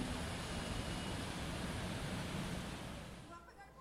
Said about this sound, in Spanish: Impresionantes imágenes lo sucedido la tarde de ayer martes en la Ruta 1, conocida como la autopista General Cañas. El río Quebrada Seca se desbordó debido a las fuertes lluvias y el agua se estancó sobre la carretera y causó estragos,